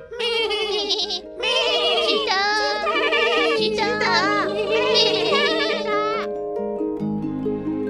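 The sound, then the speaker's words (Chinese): A flock of sheep bleats in overlapping, quavering cries, several loud wavering calls running almost continuously, with a low steady hum underneath in the second half. “他们一个个张着嘴说不出话来，只有羊群为了表示服从，仍然咩咩叫着。”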